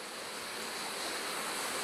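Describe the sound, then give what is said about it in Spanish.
Heavy rain drums on the sheet-metal roof of a gymnasium in a steady, dense roar of hiss and patter that stays loud and unbroken throughout, with no voices. “Ay, perdón, está, lloviendo, está lloviendo muy fuerte.”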